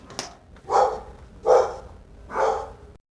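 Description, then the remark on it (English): Three loud barks from a dog, evenly spaced about a second apart, each a short harsh burst with no one talking. “You like that little atmosphere around here from courtesy of the dogs.”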